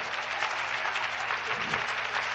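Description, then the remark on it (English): A church audience claps steadily in praise of God, a dense wash of many overlapping hand claps at an even, sustained level with no single beat standing out, and no voices rising above the applause. “Oh, would you clap your hands and love him?”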